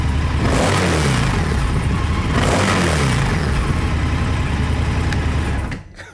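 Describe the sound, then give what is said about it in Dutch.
An Indian FTR motorcycle engine runs loud, rumbling at idle and rising in pitch with two quick revs near the start before settling, then cutting off abruptly at the end. “Hij klinkt zo heel rustig.”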